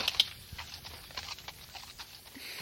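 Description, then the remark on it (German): A mare walks off at an unhurried pace onto a paddock after a gate is opened, her hooves making soft, irregular thuds and clops on the ground that stay fairly quiet, with no one talking. “Ja, gutes Pferd. Warte, ich mache eben das Tor auf, ja?”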